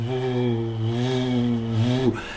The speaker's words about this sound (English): I've no doubt that you've walked past one of those electrical transformers somewhere in the street and heard the buzzing sound coming from the from the steel frame around that transformer. And this hum,